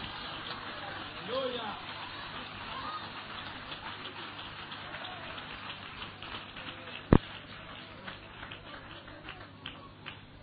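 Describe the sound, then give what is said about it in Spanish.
An audience claps their hands in sustained applause for Christ, a dense, steady patter of many hands with one sharp louder crack partway through, and voices faintly underneath. “denle un aplauso a Cristo, despierte las manos, vamos, despiértela que se le están durmiendo.”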